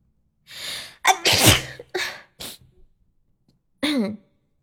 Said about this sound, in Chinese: 哎，我的天！我刚打喷嚏的时候咬到舌头了。